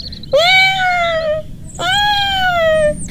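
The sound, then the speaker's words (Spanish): Two drawn-out meows from a pet cat named Sakuchan, fairly loud, each a long harmonic wail starting high and sliding slightly downward, separated by a brief pause, with no talking. “Él es mi gato y se llama Sakuchan.”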